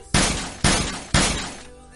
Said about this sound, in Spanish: Así de, ¡ah! Fulanito de tal te ha enviado un zumbido. así como de, ¡contesta! ¿No? Y ya cuando querías fastidiar, pues enviabas dos, tres, cuatro zumbidos seguidos, ¿no? Podía ser como este, ¿no?